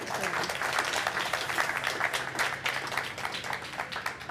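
A room full of people claps steadily, a dense, sustained round of applause that stays fairly even in loudness throughout, with no one speaking over it.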